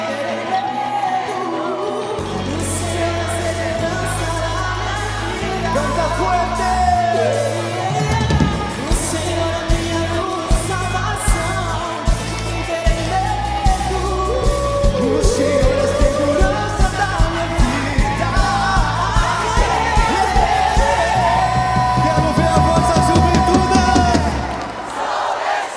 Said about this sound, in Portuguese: dá um grito aí bem forte, vai!